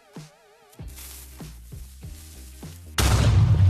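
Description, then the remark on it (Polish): A creeper monster from a video game: its warbling hiss builds through a string of rhythmic tonal pulses, then erupts into a sudden, loud explosion that fills the final moments. “Creeper jako potwór y, w grze, o której mówimy, że występuje, czyli Minecraft, nie jest zbyt przyjazny, no bo podchodzi czy wybucha”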